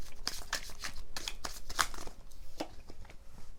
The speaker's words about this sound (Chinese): 好，来让我抽牌吼，我们来看看那他的其他的讯息有没有牌卡想要给我们的？